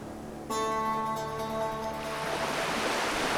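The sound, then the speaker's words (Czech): Sea waves wash onto a sandy beach, several smaller ones then a bigger one: a wave rushes in with a sudden swell of hissing surf, then a steady broad wash of water spreads and fizzes across the shore, fairly loud, with no voices. “Vlna za vlnou. Několik menších a pak jedna větší.”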